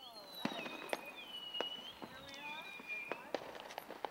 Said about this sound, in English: All right, and now back to the fireworks. I guess are we are we in the fireworks? Is something going on there?